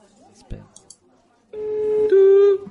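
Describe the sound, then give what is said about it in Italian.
After a moment of faint murmuring and a thump, two loud steady electronic tones play back to back, buzzy and slightly distorted: phone dialing tones as a call is placed on speakerphone. “Io chiamo. Viva voce.”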